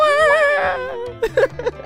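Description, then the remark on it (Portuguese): A person vocally imitates the video game character Mario falling: a sustained, wavering tone sliding downward for about a second, then a few short, choppy vocal bursts, fairly loud. “Chega no ouvido daquele Mario ali e faz o Mario caindo.”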